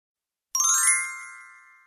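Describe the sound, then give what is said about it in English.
A school bell chime in Taiwan sounds after a moment of silence: a bright, ringing electronic tone struck sharply, then fading slowly with a shimmering, bell-like decay. No voices. “In Taiwan, we students are greeted daily by the distinctive melodic chime of school bells, a familiar sound that for many characterizes the school experience.”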